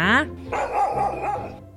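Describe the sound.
A dog gives a short, loud bark right at the start, followed by a longer stretch of voiced, whining or talking-like sound at moderate volume.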